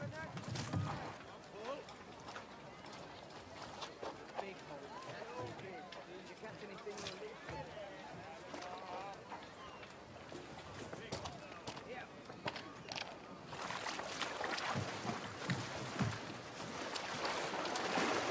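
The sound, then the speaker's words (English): Someone clambers into a boat on the water: hollow knocks, thumps and shuffling against the hull, with splashing and lapping that grows busier toward the end, and voices murmuring underneath. “You can't just climb into my boat.”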